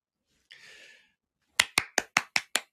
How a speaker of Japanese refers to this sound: 自分で拍手しとこう。誰もおらへんから。